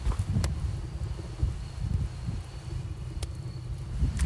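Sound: strong wind outdoors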